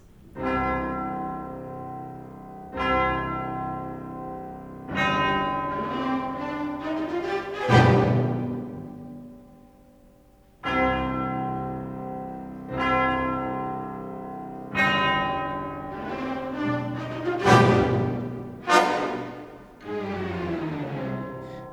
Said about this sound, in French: Voilà, donc on savait bien dire qu'il veut qu'on perçoive quelque chose d'éloigné et puis après il va faire également tout un jeu de de cloches, euh, euh, des cloches soit situées euh, eh bien, sur la scène, soit en, en coulisses.